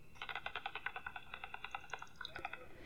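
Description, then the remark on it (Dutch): Bat calls recorded in the evening through a handheld bat detector: a rapid, steady train of dry clicks and ticks, fairly loud, with no voices over them. “Dat zijn onze vleermuizen.”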